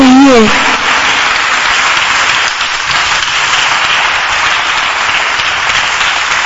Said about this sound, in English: Even your clapping should be better than what you're doing. Your clapping should be better.